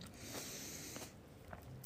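Wet chewing of red grapes from Spain, with soft juicy squelches and small bites popping every half second or so, with no talking over it.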